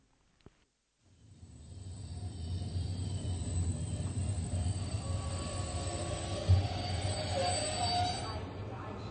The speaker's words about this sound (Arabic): تستمعون اليوم إلى وصول أندرياس وإكس إلى برلين في محطة القطار المعروفة باسم بانهوف تسو